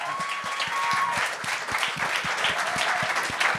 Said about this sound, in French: ben oui, on peut l'applaudir. Ben oui.